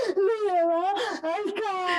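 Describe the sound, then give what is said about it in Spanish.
A voice fakes crying, letting out a wavering, high-pitched whimpering wail in a few drawn-out, quivering bursts, fairly loud. “La experiencia la disfrutas y después típico que luego estás así llorando”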